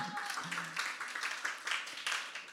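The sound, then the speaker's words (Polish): A church audience at Kościół Echo claps together in a steady patter of many hands, fairly quiet, with a faint voice briefly audible at the start. “Że jeśli jedno słowo klaszcze, wszyscy pomagają, żeby jej nie było głupio, ok?”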